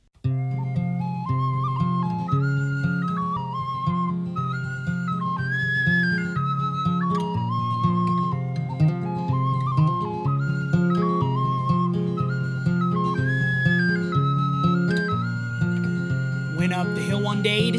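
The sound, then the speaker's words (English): A pan whistle, played by a musician from Scotland, plays a flowing, stepwise melody above a full, steady music backing, sustained and prominent throughout, with no one talking. “That fella is out of Scotland who did the uh, did the did the pan whistle, and he is just an absolute beast.”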